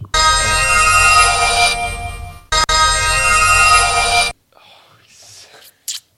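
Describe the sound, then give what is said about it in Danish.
A bright, shimmering magic sound effect rings out loudly in two sustained bursts separated by a short gap, then gives way to faint, breathy whisper-like noises. “Det var lyden af magi.”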